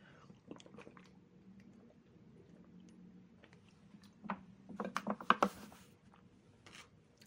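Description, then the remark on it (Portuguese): Someone sips and swallows water: soft wet mouth sounds and quiet gulps, growing into a few sharper clicks and slurps near the end, with no talking. “vou tomar um, um gole da minha água aqui só um instantinho e eu continuo.”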